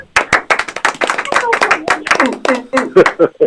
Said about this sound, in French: On applaudit loin des micros, s'il vous plaît.